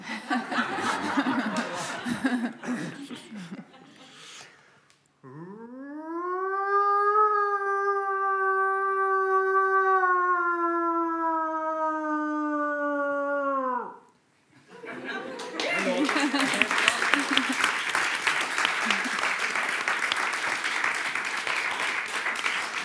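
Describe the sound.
A person imitates a wolf howl: one long, steady, rising-then-held tonal cry of about nine seconds, framed by loud audience laughter and applause before and after.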